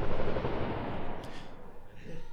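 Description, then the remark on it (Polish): Gunshots, probably from a Bollywood film being shot on Wolnica Square, crack out over a thick, continuous rumble of background noise. They blend into the din rather than standing out sharply, and nobody speaks. “Strzały.”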